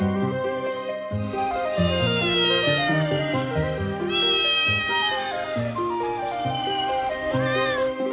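A cat meows repeatedly in long, wavering cries that rise and fall in pitch, loud, with no one speaking.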